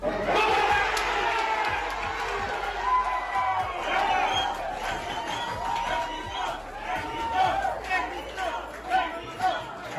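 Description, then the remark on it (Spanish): A large football crowd roars and cheers continuously as the Mexican goalkeeper dives the right way on a Polish player's shot and the ball goes out in a Mexico–Poland match, a dense wall of shouting voices with rising swells and scattered individual yells, loud throughout. “El balón va hacia afuera y los gritos de júbilo inundan el lugar.”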